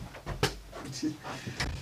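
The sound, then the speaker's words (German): A dog outside a door runs against it twice, producing short, hollow thuds and rattles about a second apart, with faint voices murmuring in the background. “Genau, wir haben hier noch einen Hund vor der Tür.”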